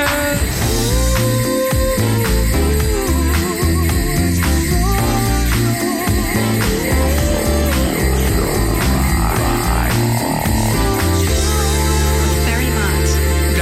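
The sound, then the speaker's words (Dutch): A festive Christmas radio station jingle plays steadily throughout, full and bright with layered instruments and a driving beat, holding the same loudness from start to finish with no one talking over it. “je hoort het al een beetje op de achtergrond. De, de kerstmisvormgeving.”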